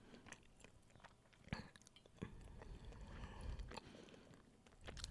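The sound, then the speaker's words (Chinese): Someone chewing a 'Jiaxian Q' taro snack, with steady wet mastication and sharp crunchy bites at irregular moments, fairly loud, and no one talking. “嗯，越嚼越香，有芋头香味，分数有慢慢高起来。”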